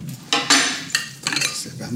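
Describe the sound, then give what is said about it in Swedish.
A glass, a bottle and an opener are set down on a hard surface, several sharp clinks and knocks with a brief ringing tone, spread unevenly over a couple of seconds with no talking. “Då får du ett glas, en flaska och en öppnare.”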